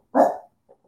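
A single loud dog bark rings out sharply, followed by a couple of faint, brief sounds trailing off in the background.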